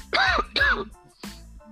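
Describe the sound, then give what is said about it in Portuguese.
Two quick sneezes burst out back to back, fairly loud, followed by a softer, shorter exhale a moment later. “Saúde.”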